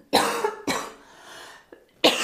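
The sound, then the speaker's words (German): Three harsh coughs in a row: two quick bursts, a brief quieter pause with a small catch of breath, then a third forceful cough. No talking. “Achtung, ich muss husten”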